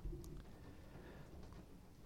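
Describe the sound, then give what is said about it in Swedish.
Soft, steady rain patters outside, a muffled hiss with faint scattered drops over a low rumble, heard from inside a former henhouse and fairly quiet throughout. “Och um, det regnar ute och jag hoppas att det inte låter för mycket in i,”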